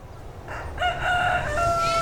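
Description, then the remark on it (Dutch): A rooster crows once at a children's petting farm, fairly loud, its drawn-out call rising and holding strained, ringing tones before trailing off, over a low background rumble with no talking. “Die, die geiten vond ik eng, maar kippertjes vond ik leuk.”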